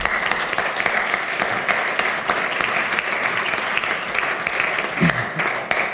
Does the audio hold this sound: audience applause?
yes